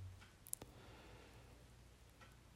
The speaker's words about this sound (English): If you hear that ticking, I bought a clock for like $3 that you put a battery in.